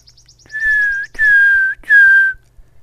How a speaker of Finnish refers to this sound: Tässä vaiheessa jo seksyy sirittäjän pesän lähettyville, ei kuule enää välttämättä laulua, vaan pitkän varoittavan vihellyksen